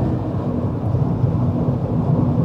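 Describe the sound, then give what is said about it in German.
Steady, deep rumbling road noise from inside a car driving south on the A7 motorway, a constant low roar with a faint droning hum and no voices. “nehme ich euch heute wieder einmal auf eine Atmo-Fahrt im Auto mit”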